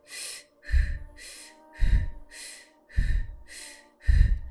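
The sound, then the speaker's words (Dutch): Fast, steady breathing in a breathing exercise, sped up with the pauses left out: about four quick in-and-out cycles with no pauses, airy hissing inhales alternating with breathy, gusty exhales, and no talking. “Zoals uitgelegd, gaan we straks de in- en de uitademing iets versnellen en we gaan de pauzes weglaten.”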